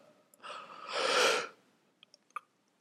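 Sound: yawn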